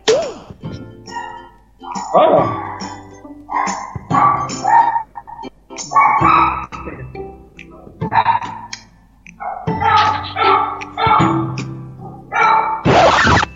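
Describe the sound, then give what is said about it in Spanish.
A dog barks repeatedly and loudly, sharp barks arriving in uneven bursts with short pauses between them, continuing throughout. “Sabe que cuando grabo tiene que ladrar.”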